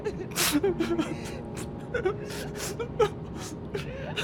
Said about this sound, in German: Nachdem ich mich umgedreht hatte, bemerkte ich einen Mann, der heftig aufschluchzte.